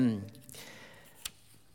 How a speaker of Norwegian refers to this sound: Ja, eh, nå har jeg rett og slett snudd litt i papirene mine. Skal vi se.